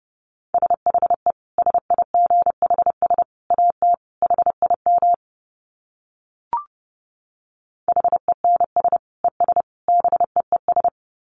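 Rapid Morse code at about 30 words per minute: a steady mid-pitched beep keyed into quick dots and dashes, sent in two runs separated by a pause broken only by a brief click.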